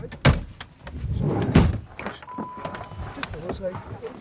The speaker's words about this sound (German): Die Senioren steigen jetzt in ihre Autos, um zu einem ein paar Kilometer weiter gelegenen Berg zu fahren, den sie auch betreuen.